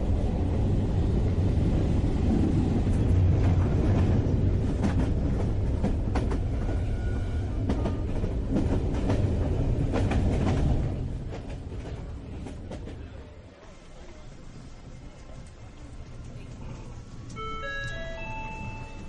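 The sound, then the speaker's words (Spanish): A train rumbles along the rails with a steady low roar and rattling clatter, then slows and quiets as it arrives at Tigre station, the end of the line; near the end a bright rising series of electronic tones chimes. “Usted está en estación Tigre. Final del recorrido. Gracias por elegir nuestra línea Trevitich.”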